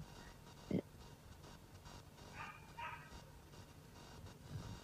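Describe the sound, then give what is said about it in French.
A small puppy lets out one sharp, loud bark, then a few high-pitched yips, with faint background noise between them. “J'ai mon petit chiot avec moi.”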